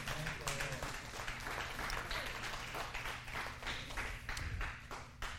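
An audience claps steadily during a Christian sermon on the gospel of Jesus Christ, a dense, continuous wash of many hands at an even loudness for several seconds, with a faint low hum underneath and no talking.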